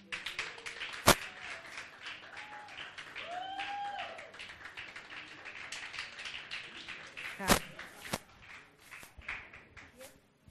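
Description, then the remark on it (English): A crowd applauds steadily for about ten seconds for a woman who has just spoken, a dense patter of many hands with a few sharp, louder claps standing out, mixed with crowd voices and a brief whooping cheer. “please clap for her.”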